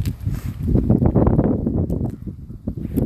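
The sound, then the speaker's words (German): Loud, blustery wind buffets the microphone with a deep, rumbling roar that surges and eases in uneven gusts for the whole few seconds, with no voices heard over it. “Digga, die, die, die, der Wind ist mal gerade eben kurze Zeit so laut, wie wir sprechen, Digga.”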